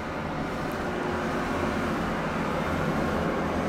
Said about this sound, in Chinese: 这个臭火车很烦哎。